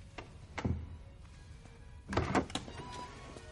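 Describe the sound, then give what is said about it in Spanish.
A back door of an apartment closes as Rose leads Jack out: a soft thud, then a louder cluster of knocks and rattles as it shuts, over a low background hum with no voices. “Rose saca a Jack por una puerta trasera.”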